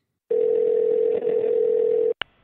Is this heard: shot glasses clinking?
no